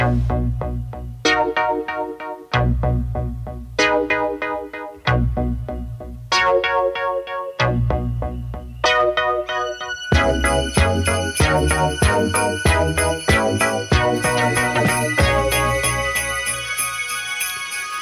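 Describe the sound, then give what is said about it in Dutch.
A bright pop riff from 1979, played on a Yamaha CS30 analog synthesizer, repeats in short, punchy phrases over a steady bass line, then swells into a fuller, busier arrangement partway through; loud and instrumental. “van Yamaha een CS30 synthesizer te lenen om te kijken of hij daar misschien iets mee kon.”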